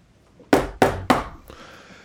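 Three firm, evenly spaced knocks on a neighbour's wooden door, loud, each with a short hollow ring, followed by a faint rustle or latch-like sound.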